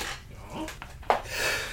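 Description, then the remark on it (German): A single sneeze bursts out sharply after a moment of quiet breathing, followed by a breathy, hissing exhale, moderately loud, while someone is mixing food ingredients. “Zum Niesen bitte immer von den Zutaten weg.”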